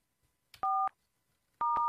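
Two touch-tone beeps from a telephone number being dialed, each a steady, mid-pitched dual tone lasting about a quarter second, separated by a short pause, with no talking.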